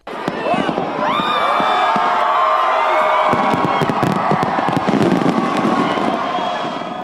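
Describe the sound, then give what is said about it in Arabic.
Fireworks burst at a New Year celebration in a rapid, uneven string of loud bangs and crackles, with rising whistles at the start, while a crowd cheers and shouts continuously underneath. “ألعاب نارية خطابات ووعود احتفالات جماهيرية أمنيات بعام أفضل ملايين من الناس ودعت عاما واستقبلت عاما جديدا بظروف تختلف حسب المكان والزمن”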